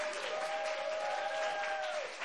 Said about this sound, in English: And when you see that card go up, everyone's going to clap. Okay, y- y'all want to practice? One, two, three, clap.